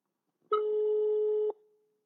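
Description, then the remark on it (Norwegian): A single steady telephone ringback tone sounds for about a second as a call is placed to a person at home in Kautokeino, a clear electronic beep with a sharp start and stop, followed by near silence with no voices. “Vi ringer”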